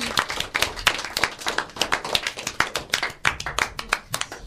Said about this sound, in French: Donc c'est vrai que c'est pas facile du tout et on peut encore l'applaudir bien fort parce que c'est vrai qu'il le mérite amplement. Bravo